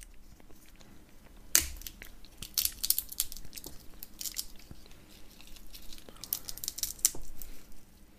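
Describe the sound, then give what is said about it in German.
Crisp crunching of someone chewing nuts, a sharp bite followed by repeated irregular crunches and brittle cracks, fairly loud and with no talking. “Echt schön mit den Nüsschen.”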